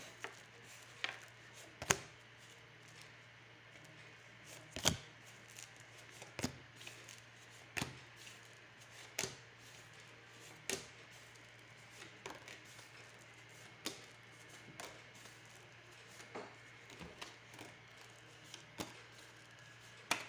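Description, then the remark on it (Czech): Playing cards being shuffled for a yearly card reading for 2022: a steady run of soft, dry slaps and taps repeating every second or so, irregular in spacing, over a low constant hum with no voices. “A já už se dívám na vaši fotku, míchám u toho karty a podíváme se teda spolu, jak se bude barvit to období 2022.”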